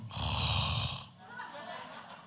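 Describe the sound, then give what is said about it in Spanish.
A voice imitates a single loud, rasping snore lasting about a second, harsh, then trails off into a quieter breathy, voiced sound. “Y yo dije, Dios mío, yo reprendo al diablo y yo espero que ese no sea el pastor roncando detrás de mí.”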